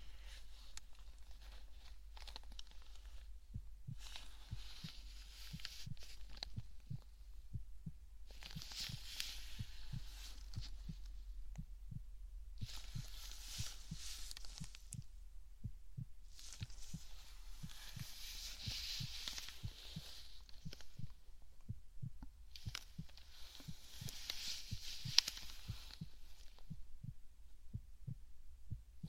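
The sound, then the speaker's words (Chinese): A steady, healthy heartbeat heard through a stethoscope during a check-up: soft, low thuds repeating at an even pace over a constant low hum, with occasional broad whooshing bursts of breath-like noise. “嗯，心跳也没什么问题，看来是一个身体状况很健康的小宝贝呢。”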